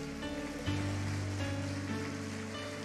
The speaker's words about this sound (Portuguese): Você pode aplaudir ao Senhor Jesus. Glória a Deus, aplauda dando glória a Deus.